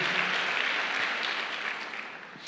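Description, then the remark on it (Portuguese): A church audience applauds itself for its contribution, steady applause, a dense crackling wash of many hands clapping at once, holding fairly even in loudness for a couple of seconds before easing slightly. “Por que vocês não dão um aplauso para vocês mesmos por essa colaboração?”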